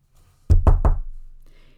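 Three firm knocks on the wooden door of a corporal's cottage at the Västgötadal regiment south of Vänersborg, Sweden, in March 1856, in quick, even succession and loud, with a short resonant decay fading into quiet afterward.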